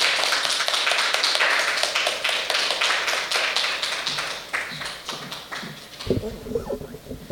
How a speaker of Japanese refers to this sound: じゃあ拍手でもう一度歓迎しました。